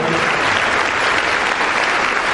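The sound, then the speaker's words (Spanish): A crowd applauds steadily for the speaker's best friends, dense clapping from many hands filling the whole moment at an even, loud level without any break. “Un aplauso para ellos.”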